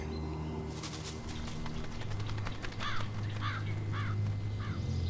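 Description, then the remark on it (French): A crow perched on a branch gives a series of four harsh caws at a steady pace over a low constant hum, after a brief burst of sharp rustling clicks. “une corneille est posée sur une branche. Dans quelques secondes, elle va s'envoler.”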